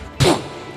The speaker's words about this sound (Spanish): Aprenderá Polilla a distinguir el sonido que se produce al derribar una puerta de madera que es.